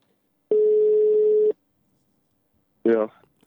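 A single steady one-second ringback tone of an outgoing phone call, heard clearly through the line, followed after a pause by a short burst of someone answering.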